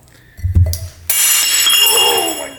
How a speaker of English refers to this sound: and I certainly just broke a Miller Lite glass. That's okay, because that's, you know, that's my father-in-law's glass.